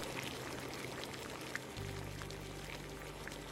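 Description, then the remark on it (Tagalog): A pot of sinigang, a sour soup with maya-maya (red snapper) fish and vegetables, bubbles and pops steadily on a stove, fairly quiet, with a low steady hum underneath from about halfway through. No one speaks. “ko na nga tong niluto ko na sinigang na maya-maya.”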